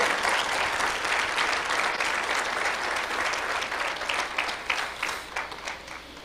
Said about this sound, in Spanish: Alguien déle un aplauso fuerte al Señor. Vamos, vamos, adórale.